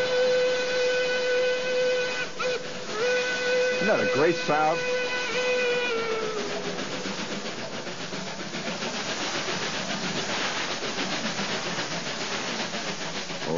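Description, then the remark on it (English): A loud, sustained steam locomotive whistle sounds with harmonic tones, then fades into steady rhythmic chugging and hissing as the engine labors up a big grade in West Virginia, with a man briefly talking over it. “They're chugging up a great big grade in West Virginia.”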